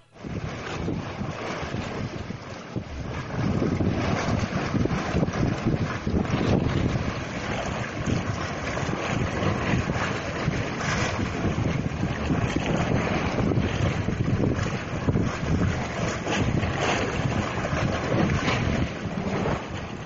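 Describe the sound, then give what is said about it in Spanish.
Sea waves crash and wash against rocks on the Salento coast in a continuous, roaring surge, loud, with gusty wind buffeting the microphone throughout. No voices are heard. “El primero no me ofrecía dudas, el mar entre las rocas.”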